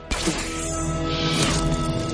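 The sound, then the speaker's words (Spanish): A sharp impact thuds in near the start as an arrow is shot into a wall, followed by a dense, sustained rumble and ringing layered over a steady tonal background. “Dispara una flecha contra una pared.”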